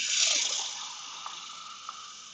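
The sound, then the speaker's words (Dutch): Water pours steadily into a glass, a bright hissing stream that is loudest at the start and then thins out, with a couple of small clinks near the end. “Ik pak ondertussen even glas water trouwens”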